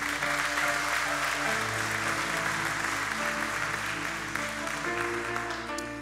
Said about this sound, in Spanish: Dar un aplauso al Señor, iglesia.